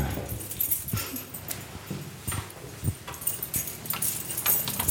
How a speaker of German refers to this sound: Und nun klimpert der Schlüssel.